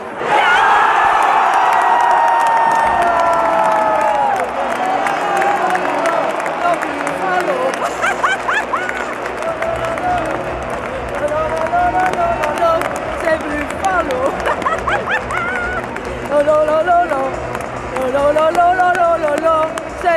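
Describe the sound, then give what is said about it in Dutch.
A large football stadium crowd at a Buffalo's match roars and cheers continuously, a dense wash of many voices with chanting swells and rising shouts throughout, loud and sustained for the whole stretch. “De sfeer is nog niet echt uitgelaten nu in het vak”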